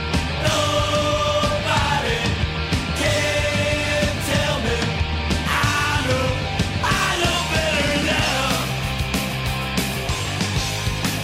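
A recorded rock song plays loudly and continuously, with a dense, distorted full-band sound, pounding drums and a strained, shouted-sounding vocal line riding on top.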